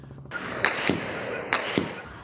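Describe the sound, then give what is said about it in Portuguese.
Four sharp gunshots crack out in two quick pairs during a shootout with suspects in the Complexo da Maré, loud and echoing slightly over a steady background hiss, with no voices. “Perto dali, outro tiroteio, dessa vez no complexo da Maré.”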